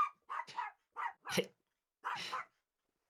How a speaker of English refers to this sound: Was that a dog? Do you have a dog? Yes. So what? I have a dog, an asshole dog. Aw, a dog. What's her name? She sounds upset.